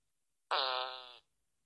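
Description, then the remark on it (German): A voice imitates a pooping fart with a single sustained, buzzy raspberry lasting under a second, loud, with no other sound around it. “Mach mein Kackgeräusch.”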